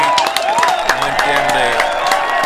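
Steady, fairly loud applause with many quick, dense claps continuing throughout, mixed with cheering voices and some tonal sound in the background.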